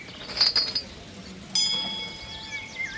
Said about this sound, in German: Ist, äh, hm, mit einer Glocke, naja, ich, ich kann die Glocke mal läuten. Passiert dann irgendwas? Ja.